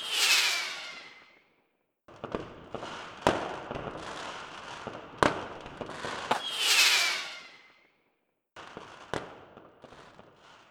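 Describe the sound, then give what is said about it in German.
Fireworks go off in a dense, crackling barrage with several sharp bangs, and twice a bright whistling rocket streaks up with a high, falling hiss. No voices. “Es gibt Musik und natürlich um Mitternacht ein spektakuläres Feuerwerk.”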